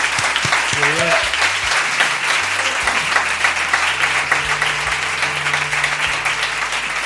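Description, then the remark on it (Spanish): Sustained applause from an audience for the program's helpers during a Cadena 100 de cerca special, a dense, steady wash of clapping lasting several seconds, with a brief murmur of voices underneath early on. “En fin, a todos un aplauso porque sin ellos esto no sería igual.”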